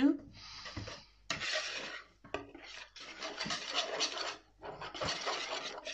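Dough is stirred by hand in a bowl without a mixer, water and a splash of milk being worked into it: repeated scraping, slapping strokes in bursts with short pauses between, fairly loud, with no talking.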